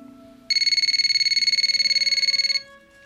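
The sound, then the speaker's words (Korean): A telephone rings as a call is being placed, with a rapid, buzzing electronic trill, one continuous burst of about two seconds at a high, steady pitch, over a faint low hum and no talking. “그렇게 보내기를 몇 달째 용기를 내서 전화를 했습니다.”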